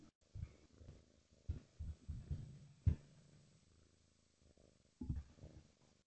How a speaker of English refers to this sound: Can you hear the cat?